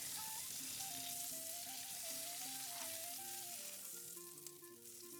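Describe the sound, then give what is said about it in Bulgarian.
Breaded veal fillets, coated in flour, egg and breadcrumbs, frying one by one in hot oil or butter, a steady crackling sizzle that runs unbroken throughout, with a soft melodic tune playing underneath and no one talking. “Потапям ги едно по едно в сгорещено олио или масло и пържа до готовност от двете страни.”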